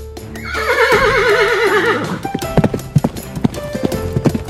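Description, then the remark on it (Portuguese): A horse lets out a loud, wavering whinny lasting nearly two seconds, followed by a quick, uneven run of hoof clops as its rider advances on horseback in a battle. “avançou com seu cavalo pelo flanco”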